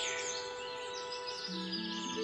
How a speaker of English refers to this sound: Oh, that's the jingle I wanted to play.